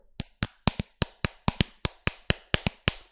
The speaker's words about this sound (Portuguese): Vou bater na minha cara agora.